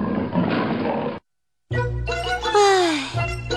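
A big tiger in a forest roaring in pain after biting into a spiky creature: a rough, raspy growl, a brief silence, then a loud, strained roar whose pitch wavers and slides downward over a deep rumble.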